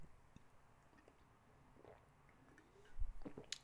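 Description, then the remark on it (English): Quiet mouth sounds of someone drinking water, with a few soft gulps and wet swallowing noises toward the end, no talking. “So I'm actually going through a little bit of of anxiety right now, so I'm gonna drink this water.”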